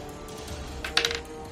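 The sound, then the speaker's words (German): Dice rolled for a first aid check, landing on eight, clatter briefly on a hard surface, a quick cluster of sharp clicking taps, settling within a second over a faint steady background hum. “Würfel auf Erste Hilfe.”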